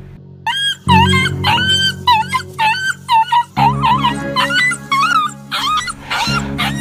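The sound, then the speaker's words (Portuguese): An injured puppy, Jubarte, whimpers and cries after breaking its paw and cutting itself on broken glass, in a rapid series of high, wavering yelps and whines, fairly loud, over a low rumbling background noise. “Ao cair, Jubarte quebra a patinha e acaba se cortando com os vidros e começa a chorar.”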